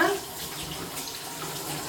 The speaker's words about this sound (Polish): Mam tutaj w tej chwili 2, 4, 6, 8 rzodkiewek. Teraz je sobie tylko porządnie umyję pod bieżącą wodą i za chwilę zetrę.